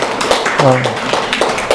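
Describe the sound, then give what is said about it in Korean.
An audience applauds for someone who has just read the Bible passage aloud, in a steady, crackling burst of clapping that fills the room, with a voice briefly speaking over it partway through. “박수 좀 부탁드릴게요.”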